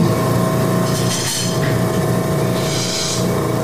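A loud medical machine switching on and running with a steady mechanical drone and tonal hum, broken by two bursts of hissing air. The noise is continuous, with no voices.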